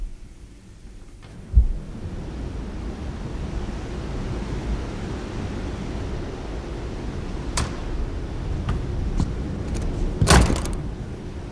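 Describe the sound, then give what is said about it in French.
A steady, heavy roar of wind tunnel airflow, heard from the hall outside the test chamber after the door is shut, fills the whole recording, dense and low, broken by a dull thump early on and a few sharp knocks near the end. “Et voilà, nous sommes sortis, nous sommes maintenant dans l'hall de la vous vous entendez encore le bruit du vent.”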